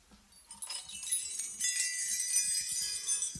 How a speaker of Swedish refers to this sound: Då är jag mer sugen på den, här, den, den första var nog nycklar, för det lät ju så, där låter den en hantverk, eller en vaktmästare.